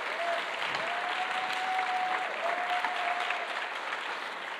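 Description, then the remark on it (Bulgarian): Sustained audience applause, a dense steady wash of many hands clapping at even loudness throughout, with a faint high tone gliding underneath. “О, ръкопляски първо, но нека да ти кажа и втората част.”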